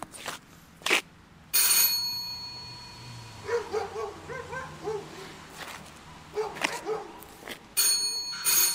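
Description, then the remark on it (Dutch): A doorbell at the front door of house number 16 rings with a sustained metallic tone, then rings again several seconds later, while a dog barks excitedly in bursts between the rings. “Ik sta hier op de uh, Kastanjedreef voor nummer 16. Ik bel nu even aan.”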